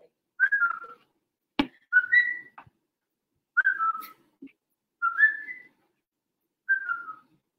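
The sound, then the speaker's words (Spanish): A person whistles short two-note bird-like calls, five phrases spaced about a second apart, each a quick slurred chirp, with a sharp tap or click partway through; no talking. “Y le dice la pajarita.”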